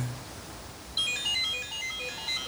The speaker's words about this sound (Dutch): En, wij zijn, mijn telefoon gaat.